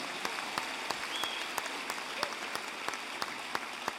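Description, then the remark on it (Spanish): After a prayer, a crowd gives an applause to the Lord, clapping steadily and fairly loudly, a dense crackle of many hands with a few sharper individual claps standing out, sustained throughout without voices. “Dale un aplauso más al Señor.”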